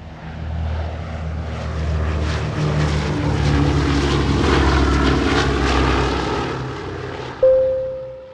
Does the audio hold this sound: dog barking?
no